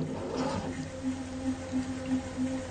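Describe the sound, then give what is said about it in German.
A low, eerie sound effect for something disappearing, a droning tone that pulses in steady swells over a soft airy hiss, with no voices. “Der Verschwindesound”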